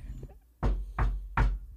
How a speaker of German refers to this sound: Klopf mal an deinen Kopf. Ja, ich, ist da noch alles drin? Warte, ich klopf mal kurz.